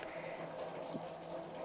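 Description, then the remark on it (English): Steady, quiet hiss of heavy rain falling outside an open window, a continuous wash of soft patter with no voices, ending in a brief louder burst. “it's raining like a motherfucker outside.”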